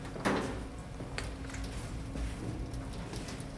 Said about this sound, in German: kurbelt am Regal und lässt so einen neuen Gang entstehen.